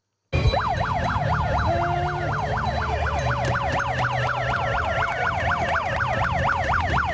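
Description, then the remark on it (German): A loud climate alarm siren, sounded by climate activists at the Swiss-wide climate strike on Alexanderplatz in Chur, Graubünden, at one minute to twelve, wails continuously, its pitch sweeping rapidly up and down in a fast, repeating yelp over a low background rumble, with no voices. “So tönt ein Klimaalarm.”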